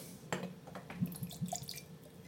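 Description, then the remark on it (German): A shot of vodka is poured into a glass: a brief, quiet splash followed by a few small gurgles and drips, with no voices. “Dann benötigen wir einen Schuss Wodka.”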